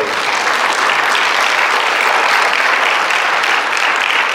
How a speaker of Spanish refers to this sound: Y espero que ese aplauso es alabanza a Dios, amén.